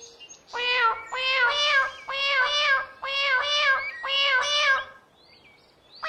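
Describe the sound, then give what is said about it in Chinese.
A kitten meows in a long, sing-song run of about five bright, wavering phrases, each rising and falling in pitch so it sounds almost like singing, with no talking over it. “这是小猫在唱歌吗？啊，真的是小猫在唱歌，唱的真好听。”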